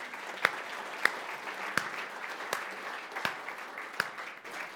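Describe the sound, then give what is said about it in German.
Audience applause for members of the Frankfurt (Oder) homicide squad present in the audience: a steady wash of many hands clapping, dense and sustained throughout, with a few sharper individual claps standing out from the crowd noise. “Erstmal einen dicken Applaus.”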